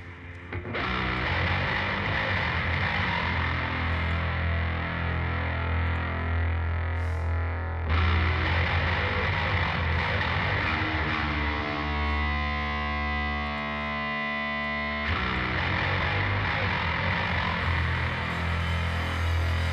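A loud, heavily distorted metal song plays continuously, a thick wall of fuzzed guitars. Midway the texture shifts to a droning, more tonal passage before the full-band roar returns.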